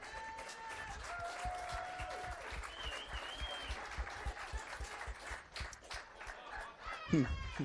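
An audience breaks into steady applause, a dense patter of many hands clapping at once, with a few cheers and whistles rising above it before the clapping fades near the end.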